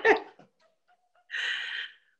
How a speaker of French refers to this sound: Alors pendant le podcast maison, mon chien est en train de s'étouffer, mais je crois que ça va mieux.